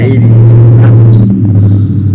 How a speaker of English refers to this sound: that was the car that just rode by. Uh, that was the car that just rode by.